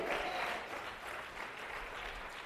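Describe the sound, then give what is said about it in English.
An audience claps steadily in praise of the Lord during a morning church service, a dense wash of many hands sustained for the whole stretch, moderately loud, with no clear talking over it. “Come on, put your hands together and praise the Lord.”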